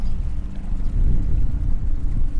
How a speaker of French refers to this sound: j'embarque à bord d'un petit bateau à moteur.